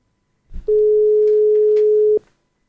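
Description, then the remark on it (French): A single steady phone ringing tone sounds once for about a second and a half, clear and fairly loud, then stops with no answer during a live broadcast call. No one speaks. “vas t il décrocher Ouais. On fait ça en direct. C'est les aléas du direct. Il répond pas.”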